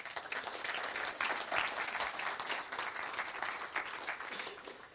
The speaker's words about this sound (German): Ich glaube, wir als Gemeinde schaffen das schon so richtig gut, dass wir zusammen essen, auch dank unserem Bistro-Team. Habt ihr mal einen richtig fetten Applaus für die übrig?